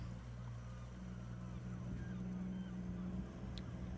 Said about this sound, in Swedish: när han får vrida om nyckeln och starta turbåten för första gången för säsongen.